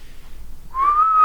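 A single sustained whistled tone starts after a brief quiet moment, rising slightly and holding steady, clear and fairly loud with no talking over it.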